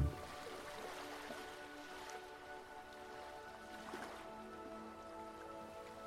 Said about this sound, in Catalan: I aquí t'asseus estirant les cames cap a l'aigua. les onades arriben aportant la seva frescor i humitat al teu cos, rítmicament.